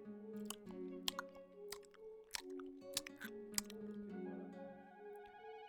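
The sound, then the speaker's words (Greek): A voice imitates a man in a cinema sucking at his teeth to free stuck popcorn, with a run of sharp, wet clicks and smacks over a squeaky, strained hum, fairly loud. “Ε, και εκεί πέρα που όλα ερεμούνε, ξαφνικά αρχίζει αυτός και κάνει κάτι με τα δόντια του γιατί του, έχει κολλήσει, το, το έχουν κολλήσει τα popcorn.”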